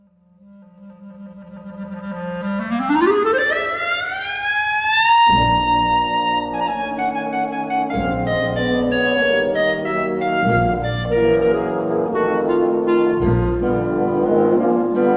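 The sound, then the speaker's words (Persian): A B-flat clarinet holds a low trill, then sweeps upward in a long, smooth rising glissando before a full orchestra enters underneath it, and the clarinet keeps playing over the loud orchestral accompaniment, in George Gershwin's Rhapsody in Blue. “بعدی که قرار صداش رو بشنویم کلارینت سی بمول هستش که بیشترین استفاده رو توی ارکستر ازش میکنند که در قطعه رپسیتی از رپسیتی این بلو از جورج گرشوین از امریکایی که در قرن بیست بودند صدای کلارینت سی رو میشنویم”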